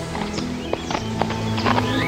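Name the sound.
horse hooves clip-clopping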